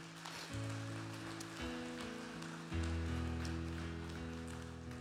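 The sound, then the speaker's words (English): People at Christian Fellowship Church give guests a round of applause, clapping steadily in a dense, crackling wash lasting several seconds, with sustained organ-like chords playing underneath and shifting a couple of times. “Let's give our guests a quick round of applause.”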